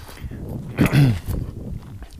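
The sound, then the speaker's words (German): Wind buffets the microphone in low, rumbling gusts, swelling into a stronger burst partway through before settling back to a steady, muffled roar. “Und ich will jetzt nicht sagen, nach der Woche, jetzt kommt es gerade wieder der Wind, Moment.”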